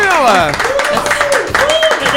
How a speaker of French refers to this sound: Tonnerre d'applaudissements pour notre invité, bien sûr.